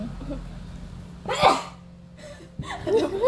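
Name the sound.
yawn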